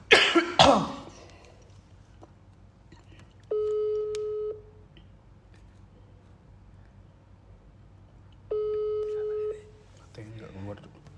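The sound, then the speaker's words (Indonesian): A telephone line tone while a call connects: two steady, droning ringback tones, each about a second long, spaced several seconds apart. A cough comes just before them and a brief rustle follows. “Bentar, bentar kita sambungkan ke penelpon.”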